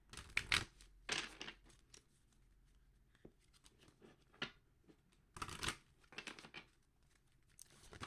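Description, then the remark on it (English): Crisp bursts of a deck of oracle cards being shuffled for a card reading, riffling and sliding in several quick bouts separated by short pauses, with no talking. “All right, let's try that shuffle again.”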